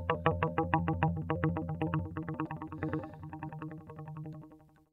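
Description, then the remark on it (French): A champagne cork bounces on a stretched rubber band, making a rapid, steady series of twangy plucked notes that ring and gradually soften over several seconds, with no talking. “ben voilà pour moi l'élastique ces sons-là, ça représente un peu le fil de fer qui se déroule donc voilà, c'est juste euh, pour ceux qui voient pas, c'est un bouchon de champagne qui rebondit sur, euh, sur un élastique.”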